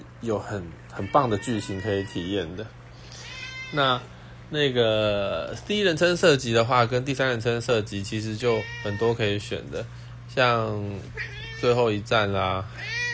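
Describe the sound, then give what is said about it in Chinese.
A pet cat meows several times, its rising, wavering cries cutting through and between steady conversational speech from a man talking throughout. “不好意思，我的猫在叫。”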